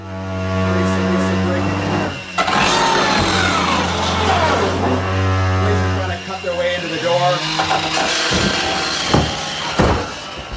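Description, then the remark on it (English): A power saw used by Vancouver police cuts through a door barricaded by squatters, a loud, steady motorized drone with harsh grinding that runs for about six seconds, then gives way to scattered voices and bangs. “Cops show up pretty quick, and they have a power saw.”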